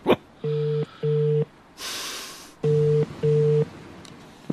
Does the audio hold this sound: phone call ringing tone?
yes